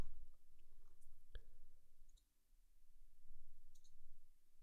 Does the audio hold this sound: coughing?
no